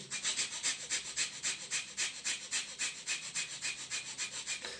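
Rapid, forceful breaths pump in and out in a steady rhythm, roughly four or five per second, in bhastrika pranayama, the yogic breath of fire. Each one is a harsh, airy burst, fairly loud, with no talking.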